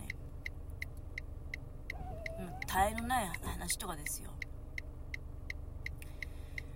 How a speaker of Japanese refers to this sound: 例えば車で今こうやって1人で移動していて